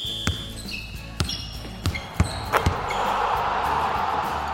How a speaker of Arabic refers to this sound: مباراة كرة سلة